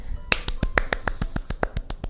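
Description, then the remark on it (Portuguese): A steady run of about a dozen quick, sharp hand claps at an even pace, crisp and fairly loud, with no voices alongside. “No último raio de sol, ele aplaudiu.”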